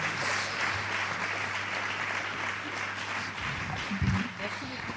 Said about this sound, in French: Bah, je vous remercie, je vous demande de les applaudir. Merci à eux d'avoir accepté d'être avec nous euh, ce soir.